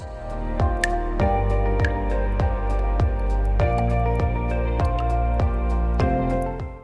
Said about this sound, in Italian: C'era dell'acqua che gocciolava e andava direttamente in un barile con uno strano strumento di filtraggio, probabilmente fatto in casa.